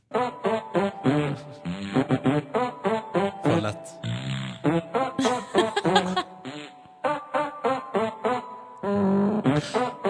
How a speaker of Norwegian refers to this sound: Og nå er det noen alver som skal prompe en liten julelåt til deg. Dette er fra gullgruva til YouTube. Hvilken låt blir prompet her?